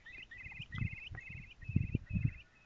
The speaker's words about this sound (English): you may have heard that. That was a curlew. They're a wonderful bird, the curlew.